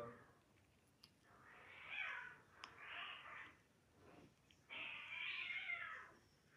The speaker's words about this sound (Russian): у меня на, на, на балконе живут котята. Ну, уже не котята, а коты такие, да, приходят. И вот они дерутся почему-то, они дерутся. Или они играются, или дерутся, мне непонятно.